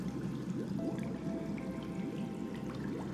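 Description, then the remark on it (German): A brook flows steadily, its water gurgling and bubbling in a continuous, even rush at moderate volume, with no voices present. “Als sie nahe am Bache waren, sahen sie, dass etwas wie eine große Heuschrecke nach dem Wasser zuhüpfte, als wollte es hineinspringen.”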